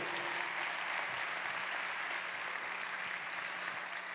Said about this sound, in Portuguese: Se você é regido pelo Senhor Jesus, dê um aplauso a Ele.